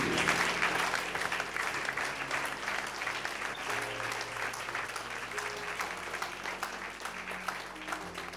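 A church audience claps in sustained applause as a 'clap offering', a dense steady patter of many hands lasting the whole stretch, with a low hum of organ or keyboard notes underneath and no clear talking.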